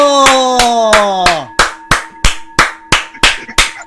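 An audience claps steadily in unison to welcome someone's entrance, about a dozen sharp claps at an even beat. A tone that glides down in pitch underlies the first few, then a faint steady hum continues beneath.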